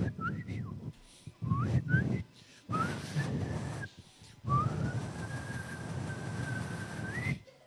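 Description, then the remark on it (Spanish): A person whistles an imitation of little birds singing: a few short chirping trills, then long sustained whistled notes that glide slightly upward, fairly loud, with no talking. “Y me faltó poner ahí los pajaritos. ¿Cómo es que le hizo serio?”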